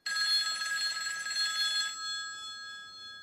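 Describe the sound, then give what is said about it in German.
A telephone bell rings loudly with a bright, metallic trill for about two seconds, then stops and its tones fade out. No one speaks. “Oh, hoppla, das Telefon klingelt.”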